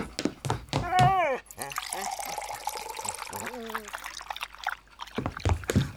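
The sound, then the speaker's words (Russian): Water pours steadily into a bowl for Altai for a couple of seconds, a hissing splash, with a voice talking briefly before and after the pour, on leaving a monastery. “Ой, как хорошо, прохладно Фух, надо Алтай воды налить Сейчас”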